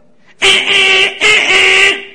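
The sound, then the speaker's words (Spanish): A car horn blares twice in succession from a driver behind in stopped traffic in Puerto Rico: two long loud honks of nearly a second each with a short gap between them, harsh and steady in pitch, with no talking. “Tú estás en un tráfico que no se está moviendo nadie y siempre aparece un loco en la parte de atrás tocando.”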